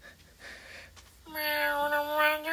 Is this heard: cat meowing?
yes